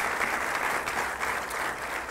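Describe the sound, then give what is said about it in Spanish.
Sustained applause from a crowd for Jesus Christ, a dense steady wash of many hands clapping at an even, fairly loud level with no talking over it. “Dele un aplauso al Rey de Reyes y Señor de Señores.”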